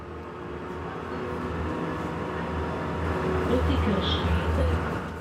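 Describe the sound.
Steady low rumble and drone of a tram in motion in Zürich, heard from inside, riding from a radio studio to District 6 (Kreis 6), with a brief high squeal near the end and faint murmuring voices in the background.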